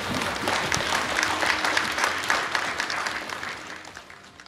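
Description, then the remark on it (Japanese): Sustained applause from an audience welcoming the start of the Asahi Yukizai IR seminar, a dense wash of many hands clapping at steady volume throughout, tapering slightly toward the end, with no talking over it. “朝日有機材 IR セミナーを開始いたしますどうぞ盛大な拍手でお迎えください”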